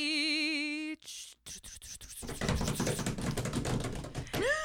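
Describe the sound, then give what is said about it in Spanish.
A wavering, warbling tone gives way to hands slapping a table: a run of sharp, separate knocks, then a dense, loud clatter of rapid pounding. “Al productor no le va a gustar que estemos golpeando la mesa, pero.”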